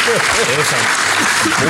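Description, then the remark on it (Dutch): An audience at an event in Amsterdam claps steadily in a dense, continuous wash of applause, with voices faintly audible underneath throughout. “Maak ik graag gebruik van het eh, publiek om even een applausje.”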